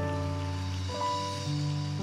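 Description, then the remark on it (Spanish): An audience applauds in a steady, dense wash of clapping that lasts the whole moment, with sustained musical tones humming underneath. No one speaks. “Los aplausos de esta gente linda no son ensayados.”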